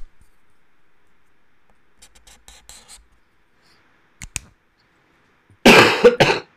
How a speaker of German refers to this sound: Und das war ein Husten.